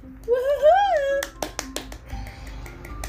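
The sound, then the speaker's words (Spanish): A high, sing-song voice gives way to about five sharp palm claps in an uneven rhythm, the first few crisp and bright, the last ones softer. “Estoy aplaudiendo con eh, las ah, palmas.”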